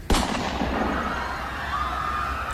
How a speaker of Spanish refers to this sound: del bolsillo de su gabardina sacó una pistola con la que detonó un disparo al aire.